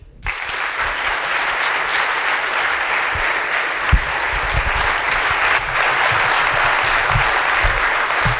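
A room full of people applauds steadily, a dense, continuous wash of clapping that stays loud and even for the whole stretch, with no voices over it.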